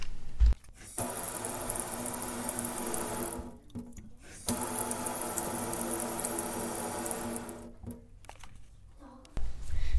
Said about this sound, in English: That was the sink running.